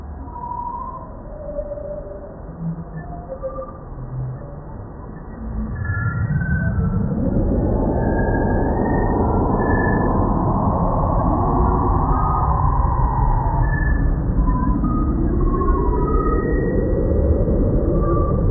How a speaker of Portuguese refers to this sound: na minha opinião, é uma das nebulosas mais bonitas que a gente pode ver, é uma das imagens mais incríveis, que agora uh, se tornou um som que, inclusive, parece uma trilha sonora de ficção científica.